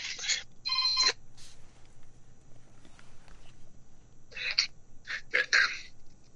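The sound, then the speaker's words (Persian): A telephone rings in bright electronic bursts, two at the start, then a pause and three more near the end, moderately loud over a quiet background with no one speaking. “فکر بله، تلفن شما بله تلفن تلفن استادیوس میتونین وردارین بله خب بله”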